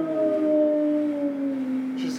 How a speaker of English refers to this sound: oh, it's a dog.